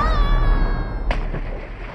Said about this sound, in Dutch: My god. maar wat is dat hier? Oh nee, ik denk dat die ijskots aan het afbreken is.